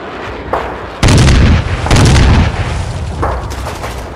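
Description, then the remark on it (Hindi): Two heavy homemade (desi) bomb blasts set off by youths of the Mukti Bahini go off about a second apart, each a loud booming crack with a deep rumbling tail, framed by fainter pops before and after. “अरे युवा मुक्ति वाहिनी के छोकरे हैं साले देसी बॉम्ब मार के पाकिस्तानियों के लिए शूटिंग प्रैक्टिस के टारगेट बन रहे हैं”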